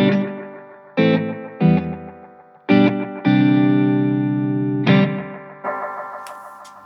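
Distorted electric guitar chords are struck in a loose rhythm through an analog echo effect with the repeat turned up, each one trailing off in a dark, murky echo tail that smears into the next. No one speaks.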